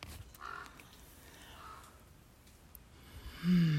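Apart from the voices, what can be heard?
crow cawing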